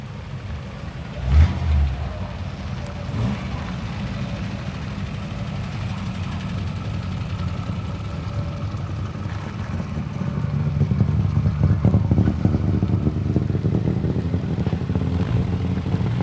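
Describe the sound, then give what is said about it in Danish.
A vintage Chevrolet Bel Air engine runs with a deep, steady rumble that grows slightly louder and rougher in the last few seconds, with a brief thump near the start. No one speaks. “Og øh, jeg så, da den her store Chevrolet Bel Air øh, kørte ind på pladsen, at det var ikke dig, der sad ved roret.”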